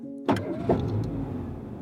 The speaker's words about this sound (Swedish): Han lämnar det grå radiohuset vid Gärdet och sätter sig i sin bil. Vrider om nyckeln och låter motorn värma upp bilen.